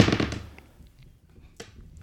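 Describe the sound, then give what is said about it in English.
A six-sided die (d6) is rolled, clattering and rattling across a hard surface in a quick burst of clicks, fading out, followed by one last sharp tap as it settles. No one talks. “you dice, need to roll one more six sider. d6.”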